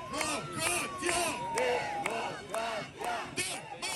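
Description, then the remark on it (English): A large crowd of Israeli protesters chants a short slogan in loud, rhythmic unison, such as "democratia" or "busha" (shame) on the government of Benjamin Netanyahu. The shouted phrase repeats every half second or so, with many voices blending into a dense, echoing roar. “The second thing you hear is busha, shame, shame, shame on the government, shame on Bibi Netanyahu.”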